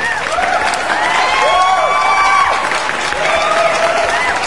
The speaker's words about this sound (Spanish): Y la neta para ellos, un merecido aplauso.